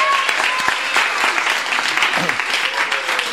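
An audience at an author's book reading claps steadily for a few seconds, a dense, even patter of many hands at a constant loud level, with no voices standing out.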